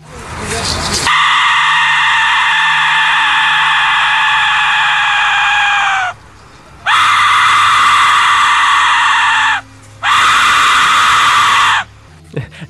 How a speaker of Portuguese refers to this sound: A gente vai colocar agora o efeito sonoro desse, desse apito maldito do inferno. Prepare-se.